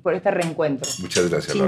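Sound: glasses clinking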